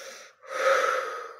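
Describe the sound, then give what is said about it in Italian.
A deep breath drawn in, a soft airy rush after a brief pause, swelling and then slowly easing off, heard on its own without any talking. “Ma se respiri”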